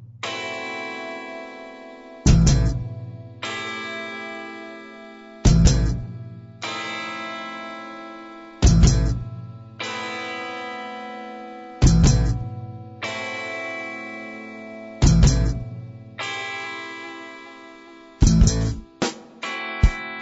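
A band plays a loud instrumental passage led by effects-laden electric guitar, with sustained ringing chords broken by heavy accented hits every few seconds. No singing or talking is heard.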